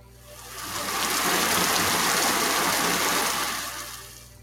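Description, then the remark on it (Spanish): Steady rain falls in a dense, hissing wash, swelling in over the first second and easing off at the end. No voices, just the continuous patter. “¿Oyes la lluvia?”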